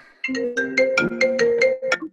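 A mobile phone ringtone plays a bright, melodic synthesized tune of repeating tonal notes in a steady rhythm, fairly loud, with no one speaking over it.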